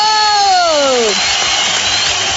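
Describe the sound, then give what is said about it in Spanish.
An audience applauds and cheers as a boxer is introduced from the red corner, opening with a loud whooping shout that slides down in pitch, followed by a steady wash of clapping and crowd noise. “Ah, el aplauso muy grande.”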